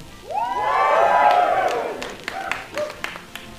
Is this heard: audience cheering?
yes